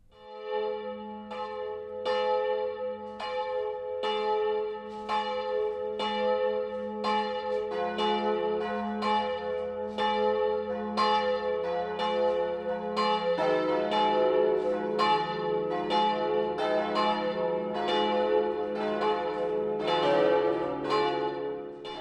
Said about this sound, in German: Es ist 12 Uhr. Das Mittagsläuten kommt heute aus Karl am Main in Unterfranken.